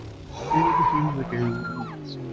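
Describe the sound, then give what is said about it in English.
A loud squeal of motorbike tires skidding over a rumbling engine as the bike rides over a car, the shrill pitch wavering and sliding for about two seconds before fading slightly at the end. “I'm going to ride my bike over your car”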